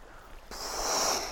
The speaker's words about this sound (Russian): или здесь есть не только звук, звуки природы, да, например, пение птиц, но еще и шум воды. Слышите? Шум воды. Это волны. Это волны.